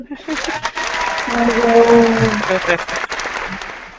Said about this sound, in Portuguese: Para, cadê as palmas?